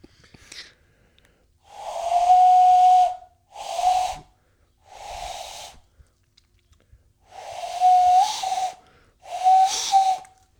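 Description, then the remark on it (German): A breathy, hollow whistle blown through two cupped hands held together, sounding in five separate bursts of varying length, each with a steady airy tone and noticeable breath noise, fairly loud with no talking. “Passt, ähm, macht euch mal mit den zwei. Haltet Händen. jetzt den Podcast an, pfeift und dann sehen wir uns gleich wieder.”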